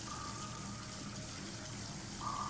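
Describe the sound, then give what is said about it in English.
Steady water noise with a churning, hollow quality as water moves and laps around a partially submerged person, continuous throughout and swelling slightly near the end. No voices. “partially submerged. I can barely move.”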